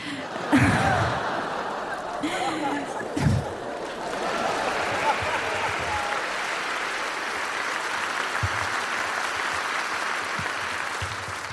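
An audience breaks into weak, scattered pity applause after a brief murmur of vocal reactions, the clapping settling into a steady, moderate patter that carries on evenly without building to a big ovation.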